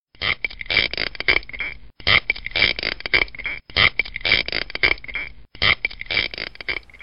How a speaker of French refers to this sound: Ça, par exemple, ce qu'on vient d'entendre, c'est le son d'une langouste